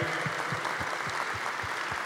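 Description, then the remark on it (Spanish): Steady audience applause welcoming first-time visitors at a religious gathering, a dense, even crackle of many hands clapping, with a regular low thump pulsing about four times a second beneath it. No one speaks. “Wow, un fuerte aplauso, bienvenida, Dios te bendiga.”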